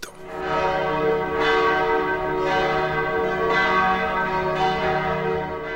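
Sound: church bell ringing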